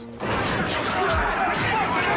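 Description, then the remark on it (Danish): A rowdy brawl in a saloon bar erupts after a brief quiet moment: dense, continuous crashing and clattering with heavy thuds, loud, mixed with a jumble of agitated crowd voices. “Jamen altså, jeg har det også meget godt hernede på saloonbaren, selvom at, ja, der er måske lidt mange slagsmål for tiden.”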